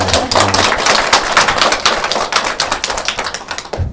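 An audience applauds steadily for about four seconds, a dense, crackling wash of many hands clapping at once, holding loud and even before quickly dying away at the end. No one speaks over it.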